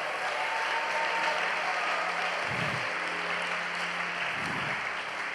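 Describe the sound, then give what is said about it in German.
An audience applauds steadily throughout, a dense, sustained wash of clapping with no voices standing out, holding an even loudness for the whole stretch. The applause is for the organisation's department heads and staff, at a gathering with coffee and cake in a long hall. “Gebt denen doch auch nochmal einen Applaus.”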